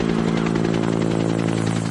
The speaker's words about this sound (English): And this is what backup looks like. This helicopter now able to grab water to drop on those flames.